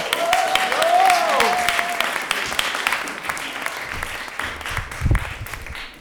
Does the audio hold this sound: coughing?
no